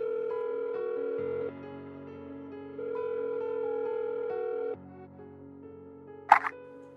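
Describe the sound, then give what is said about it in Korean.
A steady electronic phone tone hums for several seconds, stepping between two levels, then falls quieter before a single sharp click, like a camera shutter, snaps near the end. A mobile phone is used to take a photo and then place a call. “아마도 녀석이 봤다는 사건인 것 같아서 난 바로 휴대폰으로 사진을 찍어 녀석에게 보내고 바로 전화를 걸었다.”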